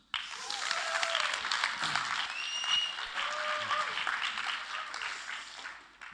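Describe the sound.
A roomful of people claps steadily for several seconds, a dense wash of applause that holds level and then tapers off near the end, with a few faint whistles or voices mixed in.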